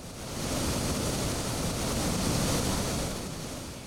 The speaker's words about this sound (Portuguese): O barulho das quedas impressiona.